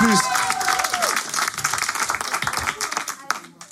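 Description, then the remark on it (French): Dense audience applause for the last live show, dancing on Fréquence Plus: a steady wash of many hands clapping at full loudness, with a few cheering voices and whistle-like tones rising over it near the start. “Applaudissements, c'est le dernier live”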